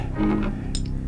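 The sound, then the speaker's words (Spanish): Two quick, bright clinks of glass cups ring out close together over a steady low rumble, short and crisp with a faint ringing tail, as cups are raised in a toast. “Llenad mi copa hasta los bordes.”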